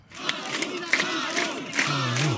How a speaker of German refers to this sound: Und das, das geht so weit, die haben einen, ähm, ja, einen kleinen einen Fan, wie sagt man, Chant? Fan-Chant, ja. Fan-Chant ähm, entwickelt, der klingt so.